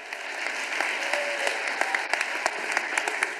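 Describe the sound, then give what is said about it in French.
An audience breaks into steady applause for God, a dense wash of many hands clapping with sharper individual claps standing out, sustained at an even level with no talking. “J'aurais dû avoir une main d'applaudissement pour Dieu.”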